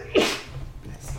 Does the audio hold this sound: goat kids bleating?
no